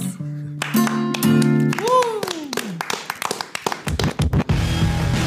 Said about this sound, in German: Woo! Applaus!